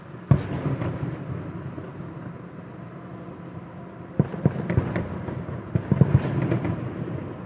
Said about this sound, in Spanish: En Bogotá le ganó a Huracán de Argentina, campeón de la Copa Suramericana y desde mi casa se oyen los fuegos artificiales. De hecho, desde mi ventana alcanzo a ver los colores de los fuegos artificiales.